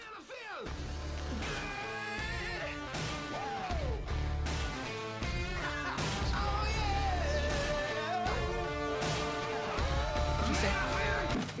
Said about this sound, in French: C'est l'extrait d'une publicité assez récente. Et c'est à vous de me dire à quoi cet extrait correspond. Il faut bien écouter la fin de la musique parce que c'est là qu'il y a un indice.